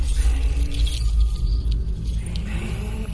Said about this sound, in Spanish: Al verla quise largarme, pero extendía sus manos hacia mí, chasqueando unas enormes uñas que vibraban y parecían llamarme.